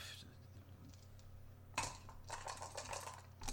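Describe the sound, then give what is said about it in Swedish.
Dice are rolled onto a hard table, landing with a sharp clack and then rattling in a quick burst of small clicks for about two seconds. Fairly quiet, no voices. “Nej, nej, nej, nu slår jag fel.”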